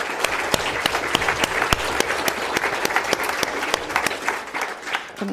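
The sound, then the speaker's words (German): An audience claps steadily for several seconds in applause for Franziska, the show's technician, a dense patter of many hands with a few sharper individual claps standing out, fairly loud throughout with no talking. “Wollen wir, wollen wir mal für Franziska, Franziska ist unsere Technikerin, mal ja. ganz doll Beifall geben.”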